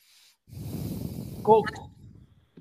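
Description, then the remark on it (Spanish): Loud, heavy breathing rasps into a microphone for a couple of seconds, swelling into a sharp snort-like gasp midway before trailing off, with a brief click at the end. “Quién está respirando tan fuerte, cabrones?”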